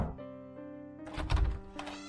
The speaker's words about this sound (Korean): 노크를 해보았지만 아무런 기척이 없었고 이 사람들이 장난하나 하는 마음에 다시 문을 두드리기 시작했습니다.